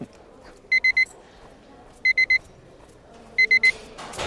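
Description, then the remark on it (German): Electronic pager-style beeping from a device in someone's underwear in a hospital corridor: three quick, high, clean beeps, repeated in three evenly spaced bursts, clear over a quiet background. “Bei dir piepst wohl.”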